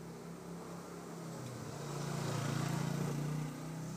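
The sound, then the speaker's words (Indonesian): A motorcycle engine drones, its low hum swelling louder toward the middle as it passes and then easing slightly, with no talking over it. “bentar, bentar motor. ada motor”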